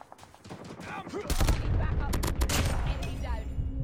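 Rapid bursts of video game gunfire erupt about a second in and keep going, loud and sharp shots layered over muffled voices and background game noise.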